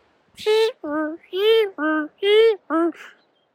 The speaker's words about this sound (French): vous l'avez reconnu, effectivement, hein, c'est le bruit des essuie-glaces. Hein, notre région nous fait honneur et nous dit au revoir et pleure notre départ sous des euh, trombes d'eau.